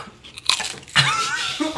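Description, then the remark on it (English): A sharp crunch as someone bites into a very crunchy thin-crust Domino's pizza, followed by brittle crackling and chewing noises. “that was a very crunchy, thin crust.”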